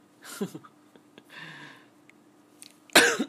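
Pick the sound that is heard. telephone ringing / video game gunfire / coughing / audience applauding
coughing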